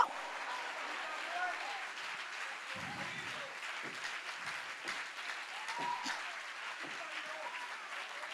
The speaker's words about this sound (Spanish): Si le va a dar un aplauso.